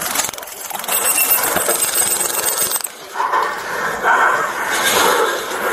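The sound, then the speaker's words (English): A police officer's taser crackles in drive-stun mode, shocking without firing its prongs while a man has his hands on it in a struggle: a loud, harsh stream of rapid electric clicks that runs steadily for several seconds, dips briefly, then continues under rougher, muffled commotion. “If I play the audio for you, you'll hear the taser actually deploying, not in its fired out prong state, but in the way that you can shock it without firing out the prongs.”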